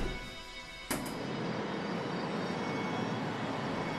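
Ambience at the train station of Beersheba, a desert city in Israel: a steady, loud, broad rumbling roar like machinery or a train idling. A sharp knock sounds early on, and no one speaks.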